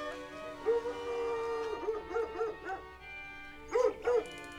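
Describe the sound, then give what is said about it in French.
A dog barks in short, yelping bursts, a few at a time, after an opening drawn-out whine, all over a steady humming musical tone with no one speaking. “Un chien aboya.”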